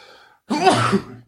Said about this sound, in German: Hatschi.